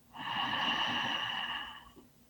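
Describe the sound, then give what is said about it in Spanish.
A single long, deep breath drawn in through the nose during a guided breathing exercise, a steady airy hiss lasting nearly two seconds that swells quickly, holds, then tapers off. No one speaks. “Inhalamos todo lo que está en la mente y lo exhalamos en un globo.”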